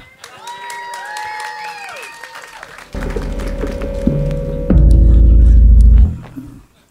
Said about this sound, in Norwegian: Da tar vi en applaus for.